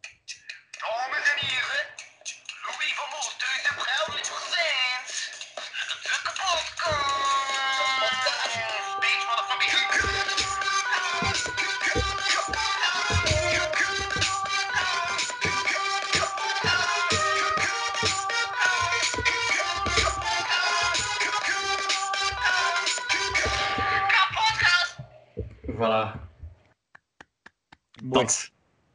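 A short electronic jingle of about twenty-five seconds with a busy, clicky rhythmic beat and layered tones, played loud and up front before it cuts off abruptly.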